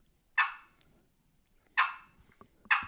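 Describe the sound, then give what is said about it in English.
Three sharp, single turkey clucks played on the back half of a box call with the paddle almost closed, spaced unevenly with short quiet gaps between them. Each is a crisp, fairly loud pop that fades quickly. “Then you got the cluck. You play that on the back half of the box call.”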